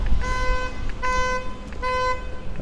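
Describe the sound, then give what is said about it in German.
A vehicle horn honks three times in a steady rhythm, each blast about half a second long, sounding from outside over a low rumble of street noise. “Da drüben lebt auch was vor sich hin und hupt.”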